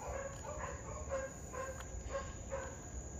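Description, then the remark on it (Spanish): A dog barks repeatedly in a steady, evenly spaced series, sounding faint and somewhat distant, over a constant high-pitched insect-like whine and low background rumble. “Déjenme llamar a mi perro.”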